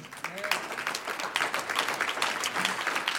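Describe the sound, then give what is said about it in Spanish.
An audience applauds for the Lord during a sermon, dense overlapping claps forming a continuous, fairly loud rattle for a few seconds, with faint voices mixed in beneath the clapping. “Un aplauso al Señor.”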